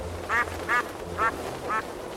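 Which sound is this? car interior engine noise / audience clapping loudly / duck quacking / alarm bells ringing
duck quacking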